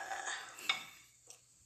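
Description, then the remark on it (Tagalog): Cooked adobong balot being dished onto a serving plate after the heat is turned off: a soft, continuous scraping and stirring of utensils, with a sharp clink about midway and a lighter tap near the end. No voices. “And ilalagay na natin sa serving plate.”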